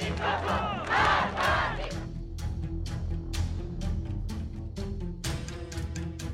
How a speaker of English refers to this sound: Protesters in Vancouver are chanting Women, Life, Freedom. It's a similar scene in cities across the globe.